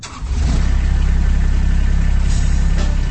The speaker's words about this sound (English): That's the sound of a Kubota RTV utility vehicle Maybe it has a Kubota orange paint job, maybe camouflage, maybe it has two seats, or maybe it has four.